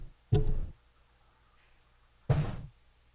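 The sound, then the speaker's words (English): Two loud, muffled thumps about two seconds apart, from a cat bumping into a microphone, each a short, boomy rumble, with near silence between them. “Could you hear that? My cat was between me and my microphone.”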